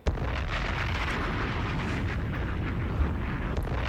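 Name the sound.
explosion sound effect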